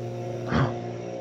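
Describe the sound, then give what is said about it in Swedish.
A leaf blower drones steadily somewhere outside, a muffled, even engine hum that swells briefly in the middle before settling back to its constant pitch. No one speaks. “Kommer lövblåsen här utanför? Ja, jag hör den.”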